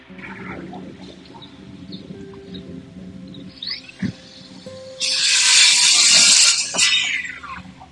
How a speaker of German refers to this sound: Es ist überhaupt ein Rasenmäher. Nee, ich glaube, das ist so ein. Klingt eher wie so ein Häcksler oder so ein. Äh, kennen wir ja nicht aus. Irgendwas im Garten wird gemacht auf jeden Fall.